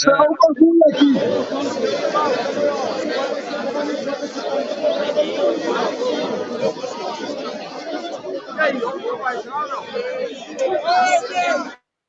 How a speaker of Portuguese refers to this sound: Olha aí a, a festa da torcida. Tomando aquela, né, cara? Comemorando.